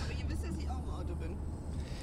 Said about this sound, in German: Ja, ich bin auch im Auto übrigens.